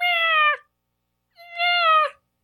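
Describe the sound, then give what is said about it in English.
A person imitates a peacock with two loud, high-pitched wailing calls, each under a second long, separated by a short silent pause, with no other sounds. “Did I do a good peacock sound?”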